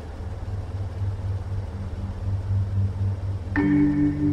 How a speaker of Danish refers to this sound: Klokken kvart over tre om natten forlader syv delinger af tropper i den indonesiske hær i busser og lastbiler en militærbase syd for hovedstaden Jakarta. Det er natten til den 1. oktober 1965.